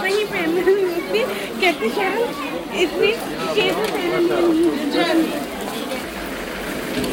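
A busy street market at the Brunnenmarkt full of overlapping voices and vendors calling out, a dense, continuous babble of crowd chatter with no single speaker standing clear.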